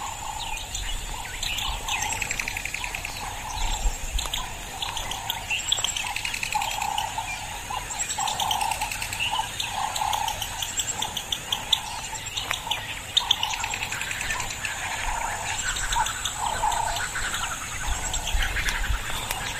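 Many birds chirp and sing continuously in a dense outdoor chorus, with overlapping high trills and tweets at a steady moderate level and no voices.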